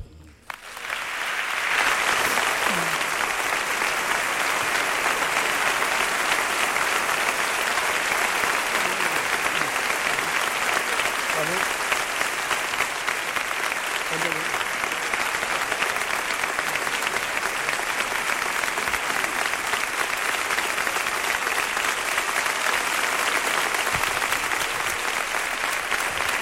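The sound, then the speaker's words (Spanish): Sustained audience applause for a speaker after he thanks them for an honour he has received, loud and steady for about twenty-five seconds, a dense wash of clapping from a large crowd with faint scattered voices mixed in. “Pues este es el aplauso que cosecha.”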